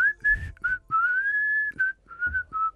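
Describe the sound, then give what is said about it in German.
A person whistles a short tune, a clear melodic line of several held and gliding notes with brief breaks between phrases, fairly loud, with some low rumbling noise underneath. “Ach nö, ein Pfeifer.”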